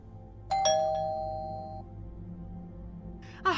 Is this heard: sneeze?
no